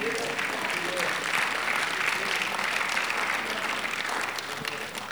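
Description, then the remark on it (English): A roomful of people applauding steadily in praise to God after an evening's teaching, a dense wash of clapping that holds at a constant level for several seconds, with scattered voices murmuring underneath. “Give God some praise for tonight's teaching.”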